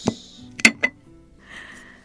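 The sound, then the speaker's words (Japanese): Paper rustles as a letter is dropped into a glass jar to be kept, giving a few sharp, close glassy clinks and taps, followed by a softer scrape or lid movement. No one speaks. “では今日もこちらをガラスの瓶に入れて保存したいと思います”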